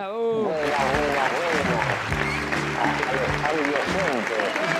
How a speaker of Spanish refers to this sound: Espera, espera, porque te, te, están aplaudiendo mucho hoy. Espera, espera, espera. Hola. ¿Qué, tal? No se escuchó el saludo porque había muchos aplausos acá para vos.